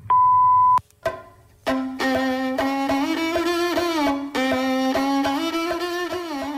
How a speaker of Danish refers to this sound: Hello. Please leave a message after the tone.